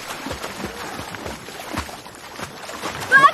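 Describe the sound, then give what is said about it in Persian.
Steady rain falling on the shore of the Caspian Sea, a continuous hissing patter broken by soft irregular splashes, with a brief high chirp right at the end and no one speaking. “الانم اومدم کنار دریای خزر زیر بارون و دارم بهش گوش”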